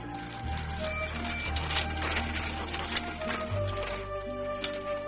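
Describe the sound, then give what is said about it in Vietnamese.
A bicycle bell rings with bright metallic tones among steady background music and street clatter, moderately loud, around the first two seconds. “hay xe đạp kêu lên kênh lướt đến là cả nhà lại luống cuống túm lại với nhau, vừa xuống đường, vừa dò dẫm từng bước về hướng thủ đô Seoul.”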